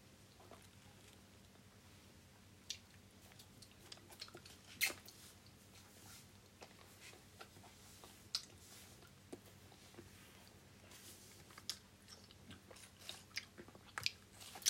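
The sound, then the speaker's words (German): Wet chewing of hard, sticky, chewy candy, with irregular sticky clicks and smacks repeating steadily over a low background hum; no talking. “Ich auch, sind aber sehr hart zum Kauen.”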